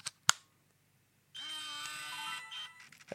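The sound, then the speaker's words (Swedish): Two sharp clicks as the sliding lens cover of an old Canon PowerShot S50 compact camera is pulled open, then a steady, whining motor buzz for about a second as the lens automatically extends, ending in faint clicks, quiet. “Så drar man upp luckan så kommer den automatiskt ut.”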